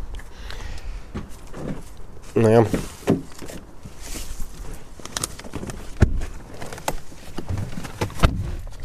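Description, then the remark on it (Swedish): People getting into a Saab car: a short creaking whine, then a couple of solid door thumps, with a brief bit of conversation around them. “Ska vi sätta ja. oss i bilen?”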